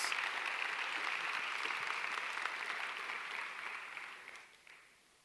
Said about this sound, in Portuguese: Quem pode dizer amém? Quem pode dar glória a Deus? Dá um aplauso a esse Deus maravilhoso.